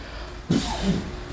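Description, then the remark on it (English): A short, rough cough from smoking weed bursts out after a brief quiet moment, followed by a second, lower huff, with no talking around it. “Yeah, that's a good cough right there.”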